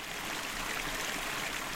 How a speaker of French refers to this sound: Quelques panneaux, mais il a surtout la rivière, toujours elle, qui fait tourner une turbine.